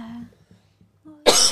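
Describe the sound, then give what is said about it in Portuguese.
A single loud cough bursts out at the end, preceded by a few soft, low vocal murmurs and brief pauses. “Saúde!”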